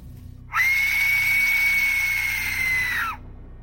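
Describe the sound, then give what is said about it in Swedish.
An Aztec whistle, of the kind found in the hands of a skeleton sacrificed to the Aztec wind god, is blown in the Mississippi River Valley: a single piercing, scream-like blast holds a steady high shrill tone with harsh noisy overtones for about two and a half seconds, then cuts off abruptly. No one speaks. “found a couple of these in the hands of a uh, male skeleton that was sacrificed to the Aztec wind god”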